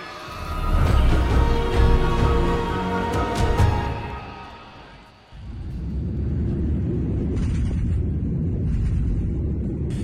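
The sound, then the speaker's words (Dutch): The burning jet engine of an S7 Airlines Boeing 737 flying over Siberia back to Novosibirsk airport roars with a deep, heavy rumble and strained whining tones, dips briefly about halfway through, then returns as a steady, loud low drone. No voices. “En dat geluid komt van een motor die in brand staat.”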